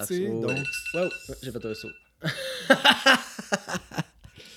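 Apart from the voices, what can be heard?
phone alarm ringing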